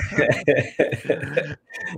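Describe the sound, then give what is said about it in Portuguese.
A run of about five harsh, fairly loud coughs in quick succession, each burst rough and throaty with brief gaps between them. “Pelo eu contrário, você tá tossindo, né?”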